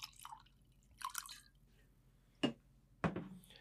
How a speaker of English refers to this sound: All right. Well, hold on a second. Let me uh, get my bottle. Pour in my normal glass that's not so fancy.